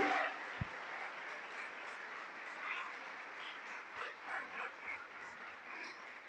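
An audience applauds the Lord in a dense, steady wash of clapping that holds evenly for about six seconds, with faint voices mixed into the crowd noise.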